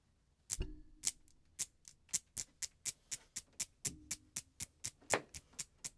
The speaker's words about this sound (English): could be a folk artist, but instead of playing the washboard, I could play my acrylics. All right. So I can demonstrate.